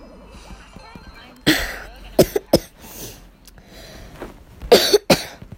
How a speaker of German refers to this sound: Tut mir leid, ich habe Husten.